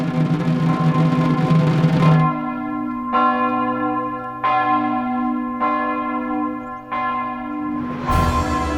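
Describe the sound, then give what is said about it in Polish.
A church tower clock bell strikes five in the afternoon in a slow, even rhythm, each loud, ringing toll decaying into a long humming resonance, after a dense wash of ringing at the start. “Gdy na kościelnej wieży zegar zaczął wybijać piątą po południu, jednooki skazaniec sięgnął za koszulę i wyciągnął schowaną tam kartkę.”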